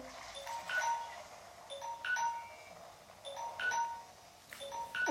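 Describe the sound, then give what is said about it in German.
A timer alarm goes off with a repeating pattern of bright, high electronic chime tones in quick clusters, cycling several times without pause. No one speaks. “Okay, das der Timer.”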